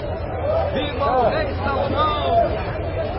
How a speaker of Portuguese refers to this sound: Depois voltaram para a cidade gritando de alegria. E agora o povo está fazendo um grande alvoroço. É esse o barulho que vocês estão ouvindo.